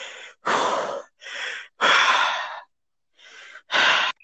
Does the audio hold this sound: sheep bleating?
no